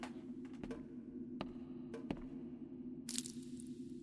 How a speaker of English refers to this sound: That stain started to drip drops, drip drops, drip drops, drip drops. I'll go and catch one on my hand.